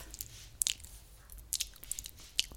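Close, crisp crunches of hard candy being bitten and chewed right at the microphone, several sharp bursts spaced irregularly over a quiet low hum, with no talking.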